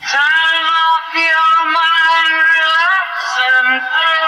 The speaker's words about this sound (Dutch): I put his voice through a Leslie speaker of a Hammond organ to give a kind of Willy effect